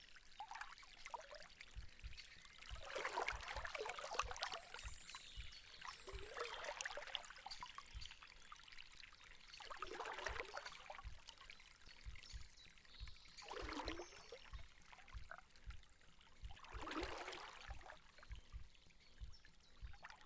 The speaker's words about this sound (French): La rivière replonge dans la torpeur rafraîchie par le clapotis.